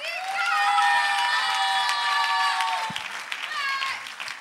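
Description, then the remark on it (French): A crowd breaks into loud applause for an invited guest about to perform a short text, with high, sustained whoops and cheers riding over the clapping, fading slightly toward the end but still going strong throughout. “Donc je vais vous demander de faire un maximum de bruit”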